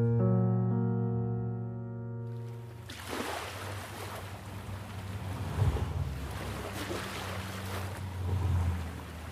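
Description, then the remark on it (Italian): Sea waves wash steadily onto the shore at Ostia, on the coast a few kilometres from Rome, Italy, in a broad, rushing surf with a couple of louder swells, following a few seconds of a low, sustained tonal hum at the start. “Ha quasi un odore il cielo che appoggia sull'orizzonte e fa tutt'uno col mare senza soluzione di continuità.”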